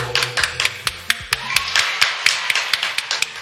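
Applause from what sounds like just a few hands: crisp, sharp claps in a quick, slightly uneven rhythm for a few seconds, with a faint low hum underneath and no talking.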